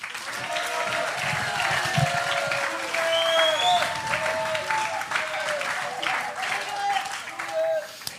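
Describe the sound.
An audience applauds steadily for about eight seconds, dense clapping holding an even loudness, with scattered whoops and voices rising above the crowd noise.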